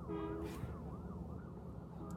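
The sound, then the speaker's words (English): A wailing ambulance siren sweeps up and down repeatedly, heard from outside over a low rumble of background noise, with no talking. “There's sorry. an ambulance.”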